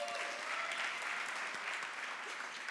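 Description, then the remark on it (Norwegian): Steady audience applause in a studio at a Stabæk 100th-anniversary event, given to the event agency that set up the equipment: a dense wash of many hands clapping at an even level for a few seconds, with no talking over it. “Så en de applaus til de òg.”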